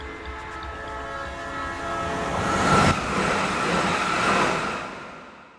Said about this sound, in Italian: quando è ancora agonizzante lo abbandonano sulle rotaie, in attesa del treno.